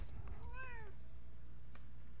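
A single cat meow from a pet cat walking past, a rising-then-falling tonal call lasting about half a second, heard alone over a low background hum, followed by quiet.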